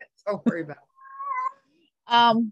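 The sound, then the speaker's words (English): A single drawn-out cat meow, fairly clear, sounds in a brief gap between a person's speech and a short laugh. “i'm sorry about the cat”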